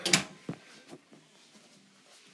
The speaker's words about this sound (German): Machen wir die Tür wieder zu.